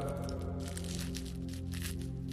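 Paper money rustles and crinkles as it is put into an envelope, in a quick series of crisp bursts over a steady low hum, with no one speaking.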